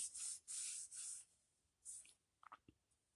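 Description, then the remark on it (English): Paper rustles and rubs in several quick swishing strokes, three longer ones then a shorter one, followed by a few soft crinkly taps and handling noises. No one speaks. “Excuse me, y'all. Paper cut, crazy.”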